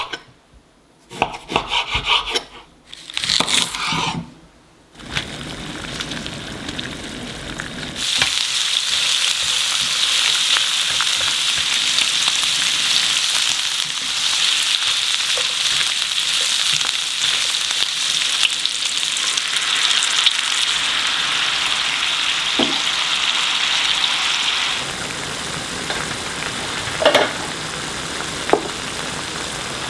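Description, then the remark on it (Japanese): Lu rou fan, a popular Taiwanese dish, cooking in a pan: after a few seconds of intermittent scraping and stirring, a steady, bright sizzle sets in and holds for about twenty seconds before easing into a softer simmer with a couple of clinks. “今朝は台湾料理の人気メニュールーローハンの美味しい音色”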